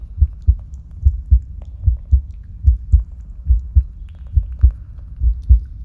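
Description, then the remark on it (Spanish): A steady heartbeat thumps in low, deep double pulses, repeating evenly about twice per second, prominent with no voices over it. “Visualiza los latidos de tu corazón, extendiendo tu energía vital hacia tu mano derecha, con pequeñas luces en la punta de los dedos.”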